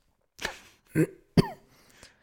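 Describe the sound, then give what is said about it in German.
A person coughs and clears their throat in three short, rough bursts spaced about half a second apart, followed by a faint breathy trailing sound. No one speaks. “Entschuldigung, ich musste husten.”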